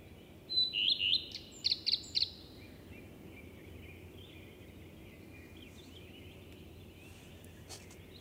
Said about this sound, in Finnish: mitä sanot leppälinnun haikeasta säkeistä? No hyvä kuvaus oli tota, yön, yön hetkistä ja leppälinnun ää, laulusta hyvä tunnelma, tunnelmakuvaus. Joo, leppälintu on, on kyllä hyvä laulaja tai tuommoinen tunnelman luoja mun mielestä.